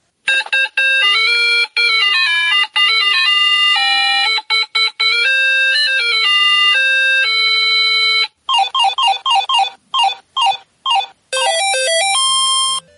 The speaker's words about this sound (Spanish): Pero, ¿qué tenía de especial esta consola? Encendámosla y les contamos a aquellos que hoy se aburren con grandes gráficos cómo era divertirse con una consola monocromática, con solo puntos y sonidos de 8 bits.